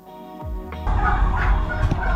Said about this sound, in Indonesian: Kalkun itu tipikal hewan yang mudah sekali untuk bersuara dan suaranya sangat kencang.